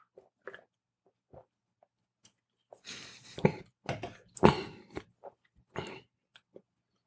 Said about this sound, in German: Das war übrigens gerade nicht der Whisky, wenn er jetzt irritiert sei, dass er im Hintergrund Schluck, Schluck, Schluck. Naja, er muss einen Schluck Wasser trinken. Hier mhm. von, äh, von äh, Tuborg das Wasser.